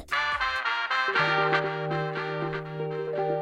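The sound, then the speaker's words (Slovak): The opening notes of a contest's winning song on Slovak radio station Európa 2 play loud and clear, with quick rhythmic chord hits over a steady sustained low tone settling in after the first second. There is no talking. “Môžeme vám teraz prezradiť, že počas našej ranej show zaznie výherný song a jeho úvodné tóny znejú takto.”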